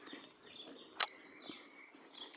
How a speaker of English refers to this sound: Yes, we've got lots of pretty birds around right now. That's it's a cardinal nice.